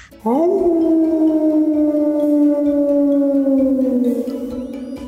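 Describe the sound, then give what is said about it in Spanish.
A single long wolf howl rises quickly, then holds a steady, loud, mournful tone for several seconds before sagging slightly and fading at the end. No one talks over it. “Mi …, el lobo mexicano. Y. Porque es así como de. ¡Au!”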